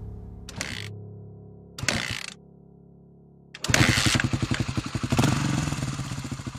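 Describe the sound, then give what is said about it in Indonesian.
A community health centre's motorcycle without mirrors is cranked twice in short bursts, then catches and runs with a loud, rhythmic chugging that rises into revving as two people ride it. No one speaks. “Ya udahlah, akhirnya mereka pun naik motor tersebut.”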